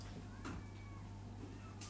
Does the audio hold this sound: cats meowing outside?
yes